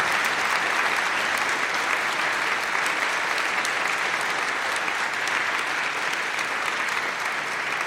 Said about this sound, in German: Helmut Müller-Embergs, vielen Dank für das Gespräch bis hierhin erstmal und nochmal einen Applaus haben Sie sich auf jeden Fall verdient für Teile der Rezeptur.